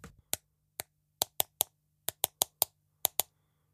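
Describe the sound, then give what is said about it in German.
A series of sharp knocks in uneven clusters, about eleven raps over a few seconds, some in quick pairs and triplets, crisp against a quiet background. “Allerdings nur für einen klitzekleinen Moment, denn als er im nächsten Augenblick die Augen wieder öffnet, da hört er ein seltsames Klopfen.”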